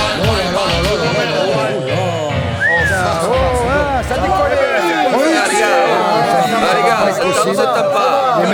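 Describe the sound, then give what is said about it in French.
A crowd of people chattering all at once, many overlapping voices forming a loud, continuous babble, with a low rumble underneath during the first half. “Voilà, si tout le monde parle, ça va pas le faire.”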